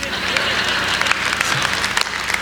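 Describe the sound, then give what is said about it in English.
An audience claps steadily, a dense wash of many hands patting at once, holding an even, fairly loud level from start to finish with sharper individual claps popping out now and then. “you're going to clap for three hours.”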